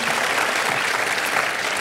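Steady, dense applause from a large audience, a loud continuous wash of many hands clapping at an even level throughout, with no distinct voices standing out; the audience applauds Dr. Kendall after a closing prayer.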